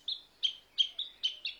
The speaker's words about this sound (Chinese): 树上的大麻雀也在叫着，娘儿俩不知对了几句什么暗语，大概是觉得没事，所以大麻雀也就不管了。